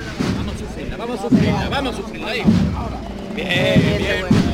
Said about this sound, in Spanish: suena el martillo.